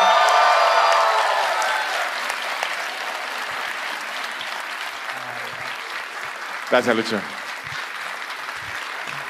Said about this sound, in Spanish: Un aplauso